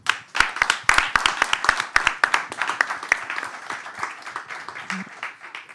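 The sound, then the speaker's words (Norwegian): An audience breaks into applause for a union club leader who has just won an important strike, many hands clapping in a dense, crackling patter that starts strong and gradually thins out, with a few sharper individual claps standing out. “Jeg syns vi skal begynne med å gi han en klapp.”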